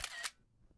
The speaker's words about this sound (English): That sound you just heard was me taking a screenshot of the board.